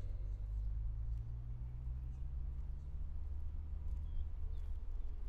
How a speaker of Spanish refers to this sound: Y ese carro viene como demasiado lento.